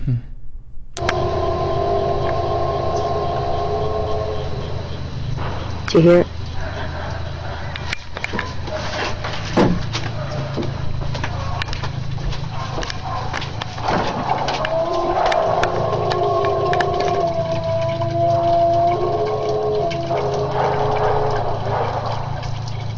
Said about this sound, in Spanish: Esto es lo que se cree que es uno de los sonidos que produce el Sasquatch. Les voy a poner para que vean cómo cómo hablas Sasquatch.